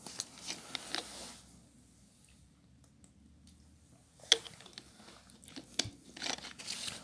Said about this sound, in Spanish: Eh, bueno, me voy a tomar un toque de agua y si seguimos con el segundo tema.